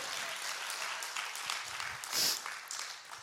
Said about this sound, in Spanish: Gracias, dele fuerte aplauso al Rey de Reyes y Señor de Señores.